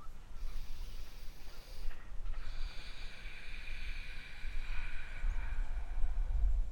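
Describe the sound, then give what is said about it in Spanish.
Deep, raspy breathing drawn through the throat during meditation, steady: a short breath, then a long, drawn-out inhale with a hissing, airy texture, and no talking. “Lo mejor es cuando inhalas profundamente y el aire te empieza a entrar por la garganta y te suena acá.”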